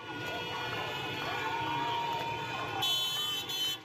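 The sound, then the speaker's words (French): Street protest in Iran against the religious authorities, part of a movement spread across several cities: a crowd shouting and cheering, a steady roar of voices joined by sustained car horn blasts that grow louder and more insistent toward the end. “Au son des cris et des klaxons, le mouvement de contestation propagé dans plusieurs villes ne faiblit pas et les femmes continuent de s'affranchir de leur voile.”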